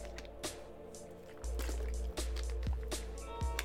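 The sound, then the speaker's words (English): Water being poured or sipped, with a few short wet drips and squishy clicks scattered over a low, steady hum; no one speaks. “Hold on, let me get some water real quick.”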